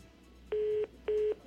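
Two steady beeps of a phone line tone after a phone call drops, each about a third of a second with a short gap between, loud and clear against faint line hiss, like a disconnect signal.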